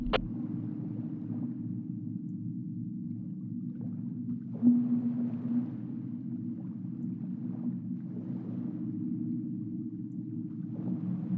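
Sea lions bark and groan in scattered bursts over the steady low drone of a boat engine as the boat moves away from Amsterdam Island at night, with faint wind and water in the background.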